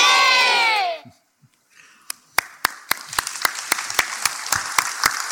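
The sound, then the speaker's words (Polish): A group of voices at a camp in Zimbabwe lets out a brief, loud cheer that trails off, then after a short pause hands begin clapping in a steady, fairly quick rhythm, continuing to the end. “I ten okrzyk jest dla Was.”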